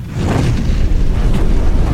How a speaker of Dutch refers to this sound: Wow, onweer. Onweer.